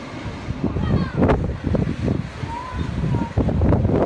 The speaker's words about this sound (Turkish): İngiltere'yi deniz fırtınası vurdu. Hafta sonu başlayan fırtına etkisini yeni haftada da sürdürdü. Fırtınanın hızı saatte 140 kilometreyi buldu.